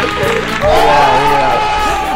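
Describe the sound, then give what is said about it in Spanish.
A loud crowd cheers and claps for about two seconds, with raised voices whooping over a steady wash of applause. “Un aplauso grande para el señor buen día!”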